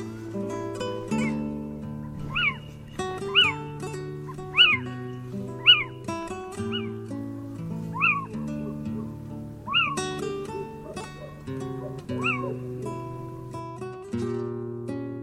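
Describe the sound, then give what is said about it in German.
A little owl calls repeatedly, sharp rising-and-falling mewing notes about every second or two, clear, over a soft, steady musical background. “Das war der Steinkauz.”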